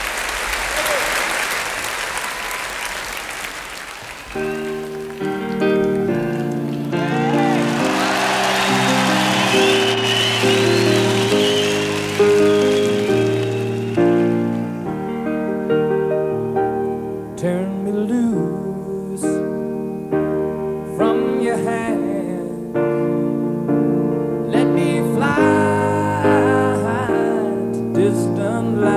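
A live concert crowd applauds loudly. After a few seconds a piano begins playing steady chords under the fading clapping, then continues alone with a melodic opening.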